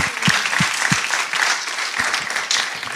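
A crowd applauds steadily, a dense wash of many hands clapping at a fairly loud, even level, with a few sharper individual claps standing out.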